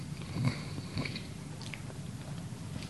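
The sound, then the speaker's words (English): Chewing food with a few moist, crunchy bites early on, then softer continuous mastication noises right at the microphone, with no talking. “But I'm hungry. Sorry for the people.”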